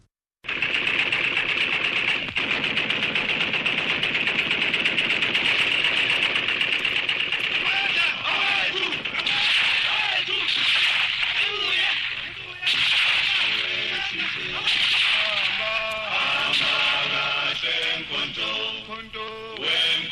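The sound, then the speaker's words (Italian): An eerie identification signal of a new shortwave radio station of South Africa's African National Congress, a wavering tonal melody repeating through a thick wash of hissing static and crackle, steady and fairly loud for about twenty seconds. “Esattamente una settimana dopo, in onde corte, appare il suono di una nuova stazione radio con un segnale di identificazione abbastanza inquietante.”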